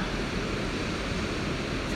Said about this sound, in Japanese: 今日は海辺に来ております。この波の音って聞こえるのでしょうか